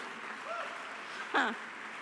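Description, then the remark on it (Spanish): Congregation applause given to the Lord, a steady, dense wash of many hands clapping at moderate volume, with a short vocal shout rising above it near the end. “Sí, dale un aplauso al Señor.”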